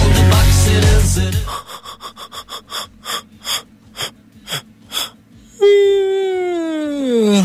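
A string of short, rhythmic breathy bursts, then a long, loud yawn whose voiced moan slides steadily downward in pitch, after a brief burst of busy noise at the start.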